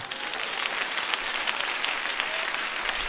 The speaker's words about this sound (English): If you just grasp what I said, clap your hands again.